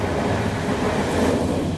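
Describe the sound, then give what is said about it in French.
A steady, heavy rumble of a fast roller coaster train rolling along its rails, a continuous mechanical roar with a faint rattling texture and no voices. “il est en fait dans un bolide sur rail”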